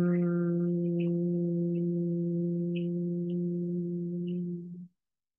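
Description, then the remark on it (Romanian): A steady, low hum made with closed lips after an inhale through the nose, held on one pitch for nearly five seconds, rich, with a few faint high ticks above it before it stops abruptly. “inspirăm pe nas și dați drumul acest humming cu buzele închise și observați vibrația sunetului cum vă pătrunde corpul și cavitatea pântecului, cum reverberează sunetul în corpul vostru și cum vă împământează”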